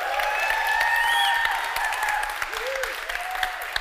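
A crowd breaks into steady, dense applause, many hands clapping at once in a continuous wash, with faint cheers and a voice rising over the noise before it begins to thin out.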